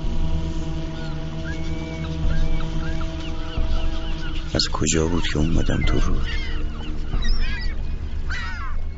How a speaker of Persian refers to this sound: مرغ دریایی و روی اروند پرواز روی آب روی نیزارا